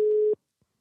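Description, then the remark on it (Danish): A single steady telephone ringback tone sounds for about a third of a second, a clear mid-pitched beep that stops abruptly, followed by near silence. “Den skulle meget gerne begynde at ringe op her.”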